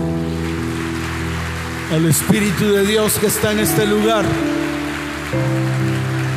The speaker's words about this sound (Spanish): Fuerte ese aplauso.